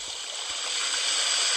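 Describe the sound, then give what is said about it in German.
A steady, hissing rush of water, an ocean waves sound effect played with a virtual sea background, like surf washing in as a continuous background bed, fairly loud and even throughout, with no voices. “Ich bin jetzt am Meer.”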